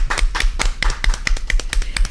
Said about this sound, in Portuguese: Tá? Estão aplaudindo? Muito bem. Então recebe o nosso aplauso aqui em nome dos trabalhadores da saúde.